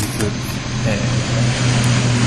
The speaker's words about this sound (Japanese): あの えーと空港がすごい近くで 飛行機が飛んでいきます